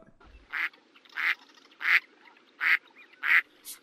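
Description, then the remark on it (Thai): A duck quacks five times in a steady rhythm near people fishing, each call loud, followed by a shorter, higher squawk at the end, with a faint background hiss between calls. “สงสัยปลามันจะหนีเสียงของเป็ดแล้วว่ายมากินเหยื่อของเราเข้านะสิ”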